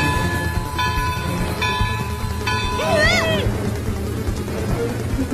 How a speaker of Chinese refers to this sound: 大哥，火车开过来了！